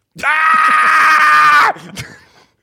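A person lets out one loud, sustained, excited scream, held for about a second and a half before it cuts off sharply, followed by a brief breathy trailing sound.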